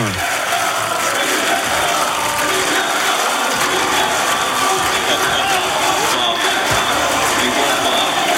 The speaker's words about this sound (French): Les applaudissements tout autour de lui, toujours avec euh, sa fille. Euh, dans les bras, Jonas Vingegaard souriant, étincelant avec son maillot jaune.